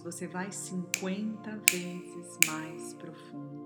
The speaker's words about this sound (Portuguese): E quando eu estalar os meus dedos